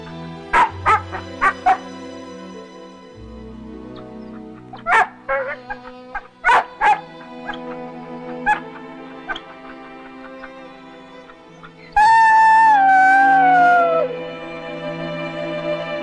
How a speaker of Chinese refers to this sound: 之后，在教授的葬礼上，八公闯入灵堂，对着教授的牌位发出令人心碎的低鸣。接着，仿佛是叫醒他似的，低鸣中又带着几声不甘的吠声。可眼看烛火寥寥，青烟几缕，这吠声又转为沉痛的呜咽。